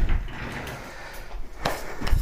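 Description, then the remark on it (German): A chair scrapes and rumbles as it is pulled back up to a desk, dragged a short way across the floor, with a couple of sharper knocks near the end, fairly loud. “So, oh, Stuhl wieder einigermaßen ran.”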